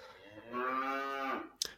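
A single long cow moo with a strong steady tone lasting about a second, ending in a brief sharp click or knock.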